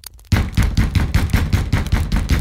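Loud, rapid knocking on a door, a steady run of about a dozen heavy thumping raps that starts abruptly and keeps pounding without pause, with no voices.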